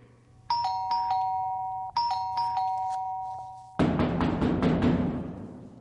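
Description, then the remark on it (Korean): An electronic doorbell at the neighbor's front door is pressed in the morning and chimes twice in quick succession, each ring a clear multi-tone ding-dong, followed abruptly by a loud burst of rushing noise. “앞집의 초인종을 누르는데”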